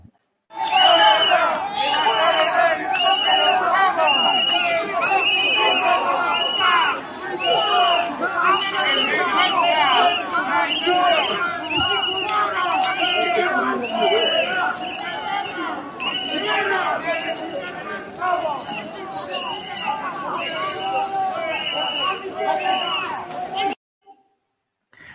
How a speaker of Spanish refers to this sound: Vamos a escuchar este bucheo y lo comentamos con Eduardo.